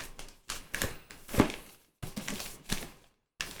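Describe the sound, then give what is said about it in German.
Rustling and scraping of a cardboard box being unpacked and opened, with an object shifting and sliding around inside the loosely filled box in several irregular bursts separated by brief pauses. “Es rutscht was hin und her im Karton.”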